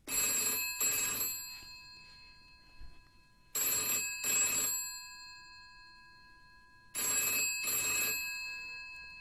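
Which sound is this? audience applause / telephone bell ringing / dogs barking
telephone bell ringing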